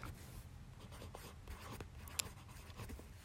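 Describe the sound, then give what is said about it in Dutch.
A pen that is not working properly scratches across paper in quick, uneven strokes, fairly quiet, with one sharp tap partway through. No one speaks. “Waarom doet mijn pen het niet?”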